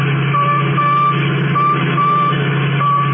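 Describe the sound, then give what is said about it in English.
A radio tracking signal from the radio in a stolen Royal Coupe car beeps in a steady, evenly spaced pattern of short electronic tones over a constant low engine-like hum, with no voices. “That's the signal from the radio in the Royal Coupe that they got away with.”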